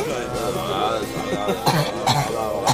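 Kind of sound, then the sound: human body sound, coughing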